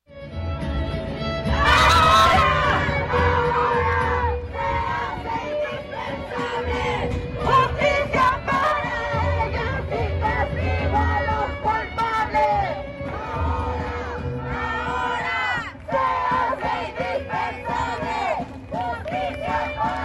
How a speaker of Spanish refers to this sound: Otras consignas son nuevas o se gritan con más fuerza, como exigir un alto a la gordofobia de instituciones de salud o que se legisle contra la violencia ácida. Escuchemos parte de la manifestación de ayer.